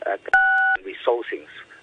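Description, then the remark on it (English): A single loud telephone keypad tone on a phone line during a call, a steady two-pitch beep lasting under half a second, cuts in with a click at each end while a person talks before and after it. “Yeah, uh, sorry, is somebody pressing buttons uh, on your on, on, your phone line?”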